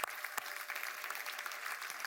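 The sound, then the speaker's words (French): A crowd claps steadily to applaud Jesus after a prayer, many hands blending into a dense, continuous wash of applause that stays fairly even throughout, with a few sharper individual claps standing out. “Et si tu le crois et tu reçois tout cela, tu peux applaudir Jésus.”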